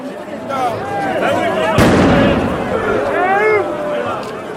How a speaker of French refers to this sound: C'est la gemme de L, qui ressemble à une grenade lacrymogène classique, mais qui est détonante aussi.